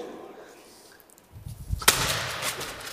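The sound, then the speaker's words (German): In a studio, a football is kicked hard with a dull thud, followed by a sharp crack as it hits a target and a brief rattling clatter that fades. “lass mich einmal hier hinschießen”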